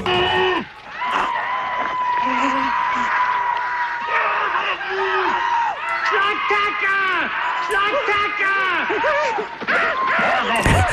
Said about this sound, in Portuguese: Há pessoas que estão a ouvir assim, aquilo pode ser qualquer coisa, são tipo umas pessoas a gritar. Há aqui uma intensidade dramática que.